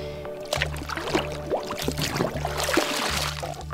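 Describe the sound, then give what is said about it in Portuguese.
Water sloshes and laps in irregular splashes against the back of a boat floating on warm blue waters at Caravelas, southern Bahia, over a steady low engine hum that pulses on and off, while a person sits at the back with feet in the water, preparing to dive. “Estou sentadinha na, parte de trás do barco com o pezinho na água, porque eu vou botar o pé de pato e aí não tem condições de caminhar, de dar dois passos com ele em terra firme.”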